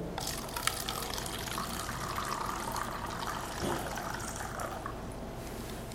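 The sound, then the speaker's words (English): Water is poured steadily from one glass into another, a continuous splashing and gurgling stream lasting several seconds, with no voices. “So here I have a glass, I have water, I'm going to tip it from one into the other.”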